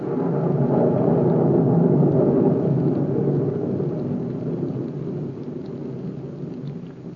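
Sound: rain with thunder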